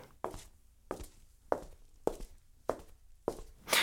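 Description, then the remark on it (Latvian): Six steady footsteps walk at an even pace across a hard floor in an empty, heated, office-like building, each step ringing with a short echo; no one speaks. “Izstaigāja divus stāvus, klauvējot un aicinot atsaukties kādu cilvēku, taču visā ēkā nevienu dzīvu dvēseli neizdodas sastapt, lai arī durvis ir vaļā, un pie ēkas stāv vairākas automašīnas.”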